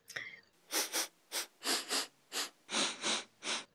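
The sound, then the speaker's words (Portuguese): A rapid series of about nine loud sniffs in quick rhythmic pairs and singles, breathy and hissy, with no talking over them, given as a playful sniff at the listeners' necks. “Vamos dar aquela fungada no pescoço dos ouvintes.”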